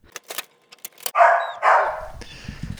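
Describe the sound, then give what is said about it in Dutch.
A dog named Zwabber barks twice in quick succession, loud, after a few sharp clicks and jingles like keys or a collar, followed by low rumbling background noise. “Dus toen heb ik zwabber gekregen, een hond.”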